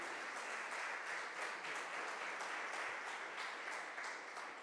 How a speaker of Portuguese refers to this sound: E se você crê nisso, aplauda ao Senhor Jesus Cristo.